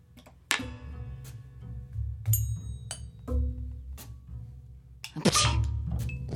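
A sharp sneeze bursts out near the start, with a second loud one toward the end and a few smaller clicks between, all over a steady low rumble.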